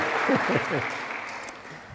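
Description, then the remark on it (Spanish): An audience claps steadily for the Lord in a dense wash of applause, with a voice briefly calling out over the clapping near the start. “Dale fuerte se aplauso el Señor.”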